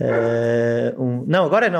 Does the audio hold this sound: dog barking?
yes